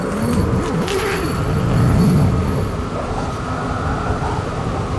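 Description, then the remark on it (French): Strong blizzard wind roars steadily during a storm, a dense rumbling rush with wavering, moaning tones that rise and fall and swell midway, loud with no voices. “j'adore lorsque le blizzard il crie si fort, en abo personne ne nous entend. Le vent, il est vivant, puissant.”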